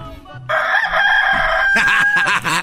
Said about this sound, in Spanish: el despertador del gallito